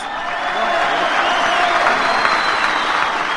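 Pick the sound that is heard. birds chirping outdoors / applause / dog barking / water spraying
applause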